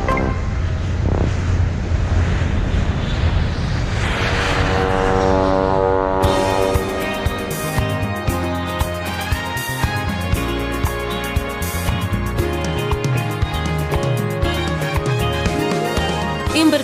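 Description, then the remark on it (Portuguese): Steady outdoor ambience at a boatyard beside a lake in Switzerland where hundreds of boats are moored, with wind gusting across the microphone and water washing against the boats. It stays fairly loud and continuous, with no one talking. “Tem um estaleiro naval à beira de um lago onde estão atracados centenas de barcos.”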